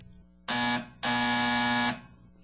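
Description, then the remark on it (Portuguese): A loud, buzzy doorbell mounted high on the door frame of a modest house rings twice, a short burst followed by a longer held buzz, with quiet in between and afterward. “Quando fez menção de bater, notou que havia uma campainha no alto do batente. Acionou-a.”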